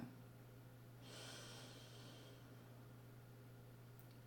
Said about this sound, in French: Et vous inspirez profondément sur la durée de 4 secondes.